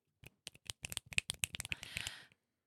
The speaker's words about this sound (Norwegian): Applaus for henne!